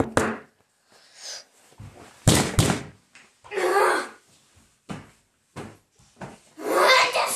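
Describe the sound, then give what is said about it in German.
A door is banged and slammed several times in irregular bursts by a little brother, with a pair of heavy thuds standing out, while a child's voice and muffled noises fill the gaps. “Und mein kleiner Bruder macht meine Tür fast kaputt.”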